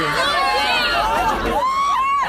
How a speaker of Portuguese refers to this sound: Bom, a gente tem que parar aqui porque os fãs todos ficam gritando desesperadamente.